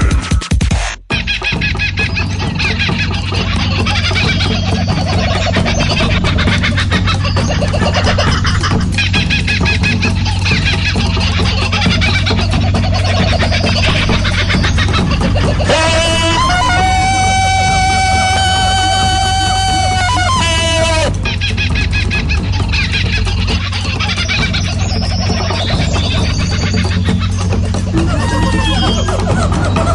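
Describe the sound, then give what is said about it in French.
A small bird calls amid a loud, dense din of chattering birds and fowl. A sustained, warbling call stands out clearly for several seconds midway through the continuous cacophony. “ça y est, mon petit oiseau.”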